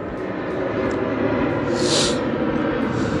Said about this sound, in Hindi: हाँ एक और हवाई जहाज़